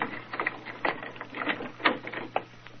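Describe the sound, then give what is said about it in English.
A key fumbles and turns in the lock of a vault door, making a quick run of small metallic clicks, scrapes and rattles at moderate loudness, with no one speaking. “Now, Mr. Merriweather, if you'll unlock the door for us.”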